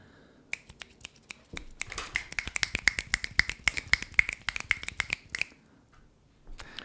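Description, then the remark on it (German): An audience at a slam event snaps their fingers as applause instead of clapping, a dense flurry of sharp, crisp clicks that swells for several seconds and then thins out to a few scattered snaps. “Ja, äh, das war übrigens Applaus.”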